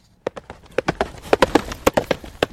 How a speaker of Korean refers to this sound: 말 달리는 소리입니다. 일부에 나올 거예요.